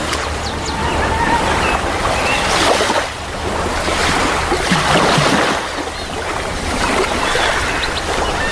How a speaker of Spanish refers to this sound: El sonido que estamos escuchando en este momento es de las olas meciéndose en una playa de Tasmania. Es un lugar que queda allá por el paralelo 40 y allí se puede respirar uno de los aires más limpios del mundo gracias a la brisa del Océano Índico.